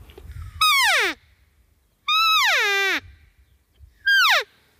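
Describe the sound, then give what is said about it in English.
Three loud, buzzy elk calls blown on a reed call, each starting high and sliding down in pitch as the call is slid to lengthen the reed for a lower note, the middle one the longest, with short quiet pauses between and no talking. “slide that call up, and as I goes up, that makes the reed longer, it gets into a lower note.”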